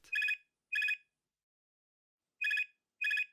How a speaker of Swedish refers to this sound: Hon kände inte igen sig i numret på displayen när det ringde. Men svarade som alltid blixtsnabbt.